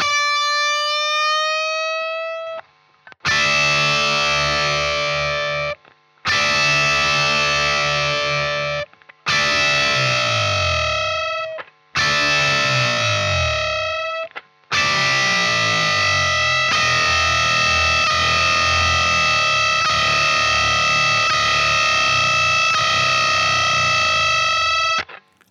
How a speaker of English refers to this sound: playing two high notes on an electric guitar, with some distortion added because that will make the low note, which he's not playing, more audible. You'll notice that as he bends one of the strings upwards, the unplayed note is bending downwards.